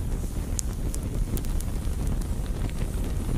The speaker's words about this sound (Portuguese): Você causou dano significativo e ele tá pegando fogo. Tá saindo fogo e fumaça de dentro dele.